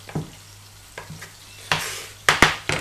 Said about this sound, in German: Dann immer schön schauen, dass wir das Hack hier auch schön anbraten.